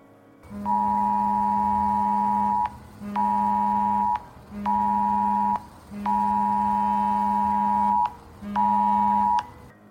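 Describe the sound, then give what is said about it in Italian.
A loud, harsh emergency alert tone blares from several mobile phones at once in a college classroom in Los Angeles, in five sustained bursts with brief gaps between them, steady and piercing, with no voices. “Mentre la mattanza accadeva, il mio cellulare, quello dei miei compagni e quello del mio professore squillarono all'unisono con lo stesso suono, quello dell'emergenza.”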